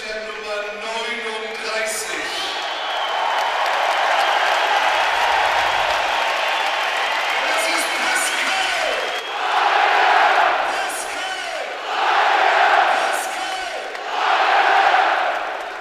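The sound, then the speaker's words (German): A stadium crowd of over 20,000 football fans at the Ostseestadion, at the season's last home match against Braunschweig, roars and cheers continuously. Swelling surges of shouting rise and fall in three loud waves toward the end. “Über 20.000 Fans, die hatten Gänsehaut, Tränen in den Augen. Alle haben sich in den Armen gelegen wegen dir.”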